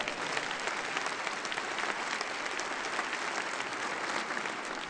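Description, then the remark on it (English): A church audience applauds steadily to celebrate Claire Mater's upcoming 100th birthday, a dense, even wash of many hands clapping that holds at a fairly strong level for the whole stretch without fading or breaking. “I'm guessing Claire is watching on TV, so let's give her one another round of applause there, yeah.”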